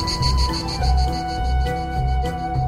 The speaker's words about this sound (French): Et la sérénade d'une cigale, ça a une puissance de 80 décibels, autant que le bruit d'une tondeuse à gazon. Alors imaginez s'il y en a plusieurs. On est au seuil de la douleur auditive.